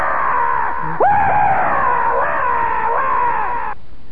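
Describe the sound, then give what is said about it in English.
A loud, sustained monstrous scream from a giant creature rising up on its hind legs in the dark, with harsh, wavering pitch that rises sharply after a brief lead-in, holding for several seconds before cutting off abruptly. “Kazanka is rising up on his hind legs. He screams again.”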